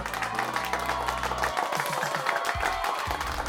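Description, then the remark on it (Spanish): Applause sound effect added in editing: a dense burst of crowd applause, many hands clapping at once in a steady, loud crackle that fills the whole clip, with a low tonal hum running underneath. “Gracias, gracias, muchas gracias por estos autoaplausos que me pongo yo en edición.”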